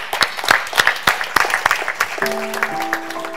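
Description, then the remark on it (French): A church audience applauds to praise the Lord, with dense overlapping claps from many hands; a sustained organ or keyboard chord enters partway through beneath the clapping. “Est-ce qu'on peut prendre le temps d'applaudir le Seigneur”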